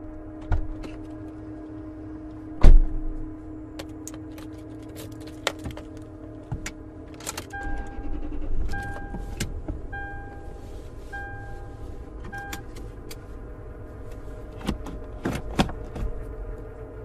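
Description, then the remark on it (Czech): A car idles with a steady low hum outside an apartment building in the evening while latches click and a solid door thump lands early on as the driver gets out, followed by a run of short chime-like beeps and more scattered handling noises. “Vystoupil jsem z auta a přišel blíž k centru dění.”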